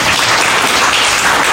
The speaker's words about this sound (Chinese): 是的，谢谢，给给他一个掌声。